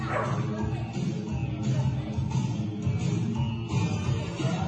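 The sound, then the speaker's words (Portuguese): A well-trained dog barks repeatedly, with yips mixed in, over a dense, steady wash of background noise that keeps the whole scene loud and busy. “Muito bem treinado o cachorro, hein?”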